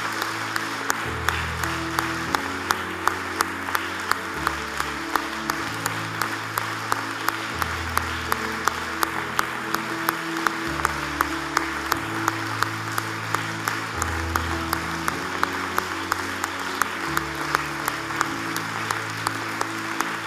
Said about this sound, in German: Hey, in dem Applaus spüre ich die Freude, dass ein Sieg da ist über die Vergangenheit.